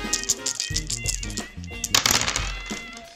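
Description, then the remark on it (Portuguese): Dice rattle and clatter in a quick burst of sharp clicks, with a louder tumble of knocks in the middle, over a steady low musical backing. “Então puxe uma cadeira, se junte jogatina né? e que rolem os dados.”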